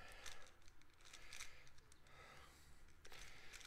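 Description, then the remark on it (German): Rapid plastic clicking and clacking from a speedcube being twisted quickly, a dense flurry of sharp turns with a brief pause near the end, no voices; the cube is turned into a checkerboard pattern on all sides. “Ich mache jetzt mal was Schnelles, hört er das?”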